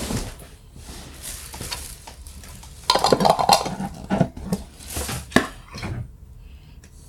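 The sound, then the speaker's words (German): A glass jar of garlic is opened amid kitchen handling noise: a burst of sharp clinks, clicks and scraping in the middle, with lighter rattles and knocks before and after. “Dann öffnen wir das Knoblauchglas.”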